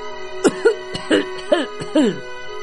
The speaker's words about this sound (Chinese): 他回到客厅时，却听见有人在用浑厚的嗓音咳嗽。